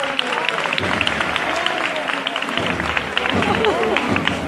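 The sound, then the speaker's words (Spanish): A large crowd claps steadily for several seconds for the costaleros carrying a procession float. The applause is a dense, continuous patter of hands mixed with a murmur of voices and scattered shouts, fairly loud. “si rompe el paso y el público que aplaude el trabajo de estos costaleros.”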